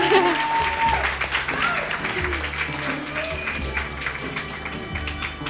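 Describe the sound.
An audience breaks into a round of applause, a dense, steady wash of clapping that stays loud for several seconds, with a low rumble and faint voices mixed underneath.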